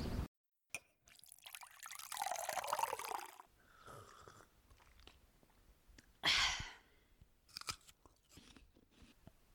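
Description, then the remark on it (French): Someone bites into and chews a crisp apple, with loud wet crunches in bursts followed by softer chewing and mouth sounds; no one speaks. “Ah, on a des pommes au mois d'avril Bon, bah, on se fait une petite pause de pomme.”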